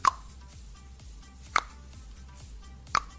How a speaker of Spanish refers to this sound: Son las gotitas de agua que están cayendo.